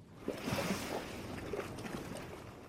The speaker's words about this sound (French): une eau bleue turquoise, peu profonde, 28-29 degrés, du soleil, un léger clapot de toutes petites vagues et au loin on devine la barrière de corail sur laquelle se brisent les vagues de l'océan.